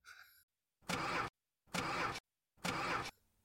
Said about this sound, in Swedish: Den här jävla bilen startar ju inte. Nej, det är fan fel på den här jävla bilen. Helvete. Ford.